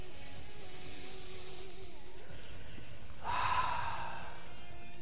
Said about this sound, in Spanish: Entonces, cierre sus ojos un momento por favor y comience a respirar. Saque el aire por la boca. Quiero escucharlo fuertemente. Quiero escucharte respirar,